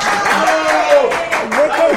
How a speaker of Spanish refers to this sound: Aplausos a …. Aplausos.